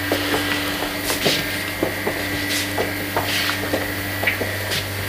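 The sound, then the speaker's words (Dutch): A large, heavy yellow door into a side storage room, at a facility in Bosnia holding remains of bodies from mass graves, opens with a series of wooden scrapes and knocks over a steady low mechanical hum. No one speaks. “Gaat nu een uh, grote, dikke deur, gele deur open.”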